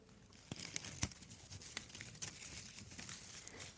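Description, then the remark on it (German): Crisp crinkling of paper or foil, a steady stream of rustles and sharp crackles with a few louder pops, no voices. “Kann das lauter knistern? Nein. Dass das näher am Mikro knistern?”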